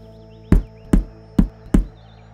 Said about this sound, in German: Plötzlich hörte sie ein Klopfen.